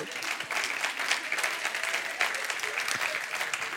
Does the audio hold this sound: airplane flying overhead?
no